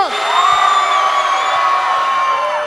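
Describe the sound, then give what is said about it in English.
A large crowd at a Halloween event screams together on cue, as if in a horror movie, in one loud, sustained burst of overlapping high-pitched voices that holds steady for a few seconds without letting up. “I want everybody to scream like they're in a horror movie. Everybody scream!”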